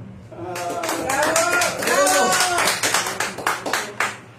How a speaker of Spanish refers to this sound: Y ahora sí, recibamos eh, con un fuerte aplauso a nuestra amiga y radio de León.